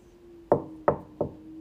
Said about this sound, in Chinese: 玛雅正走上二楼， 有人敲门了，